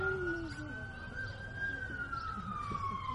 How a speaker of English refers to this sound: let's say a prayer real quick for whatever's going on in our community here with all these sirens going around.